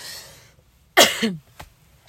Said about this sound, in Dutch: Omdat ik denk, ja, dan hoest ik even. Kun jij ook even wat drinken of een kuchje doen? En dan kunnen we weer verder.